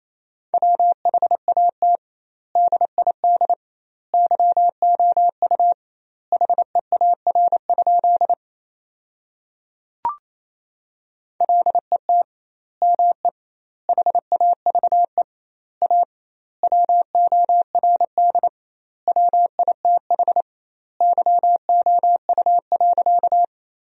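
A steady single-pitched tone keyed on and off in rapid dots and dashes, a Morse code sentence sent at 28 words per minute with doubled word spacing, longer gaps between words and a short click midway through.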